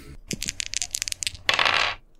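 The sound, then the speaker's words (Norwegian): Dice are rolled in a game, rattling and clattering in a quick series of sharp clicks followed by a dense rolling rattle that settles after about half a second. “Da kan du rulle igjen.”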